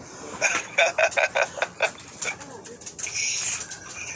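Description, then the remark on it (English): Dogs make noise in the background: a quick run of short, high yaps in the first two seconds, then scattered, softer yelps and a steady hiss of room noise. “Um, excuse, face, excuse my yeah. dogs there in the background.”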